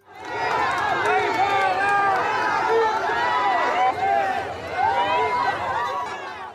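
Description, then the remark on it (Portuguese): A large crowd at the Santuário Nacional de Aparecida roars continuously as President Jair Bolsonaro visits, with many overlapping voices shouting and jeering amid applause and boos, loud, sustained for several seconds with a brief dip midway. “O presidente Jair Bolsonaro recebeu aplausos e vaias ontem ao visitar o Santuário Nacional de Aparecida.”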